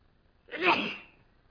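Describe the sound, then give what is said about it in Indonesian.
A single sneeze bursts out, sharp and breathy with a quick onset, then trails off within about half a second, surrounded by quiet. “Alhamdulillah. Ya hatikum.”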